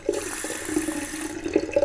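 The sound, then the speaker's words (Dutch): A tap runs cold water steadily into a sink, a continuous hissing rush of water with small splashing fluctuations, moderately loud, with no voices. “Ik ga even koud water pakken.”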